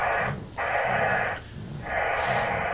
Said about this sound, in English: Okay, that static sounds processed. It does could it could have DSP on it. A lot of these radios have DSP now.